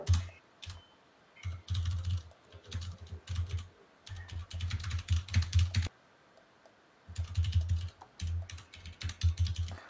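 Rapid bursts of keyboard typing, clear, with short pauses between flurries of clicking keystrokes and a brief silence midway before the typing resumes, as a Telegram message is typed inviting someone to a New Year's Eve stream.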